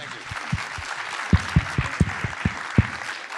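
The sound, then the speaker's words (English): An audience applauds to welcome Mel Gibson in a steady, dense wash of clapping, with several sharper, louder claps and thumps standing out above the crowd noise throughout. “How about another round of applause for this guy?”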